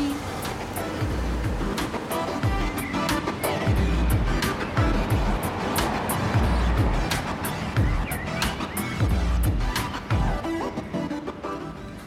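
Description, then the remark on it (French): A car drives steadily along a road from Valley View toward Grande Prairie, its continuous low rumble and wind rush filling the scene, with occasional sharp clicks and thumps over the constant engine and tire noise. “Donc, on va reprendre la route maintenant et on va se diriger.”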